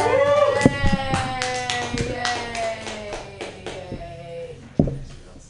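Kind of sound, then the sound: crowd, audience clapping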